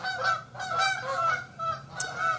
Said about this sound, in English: they're, they're, they're going by saying amen. That's amen in, in uh, goose language.